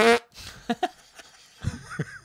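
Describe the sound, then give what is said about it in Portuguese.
A voice imitates a fart with a couple of short, buzzy blurts spread over about two seconds, fairly loud, with a brief voiced burst at the start. “Tudo que eles têm vontade tem que fazer. Quer peida, peida, quer.”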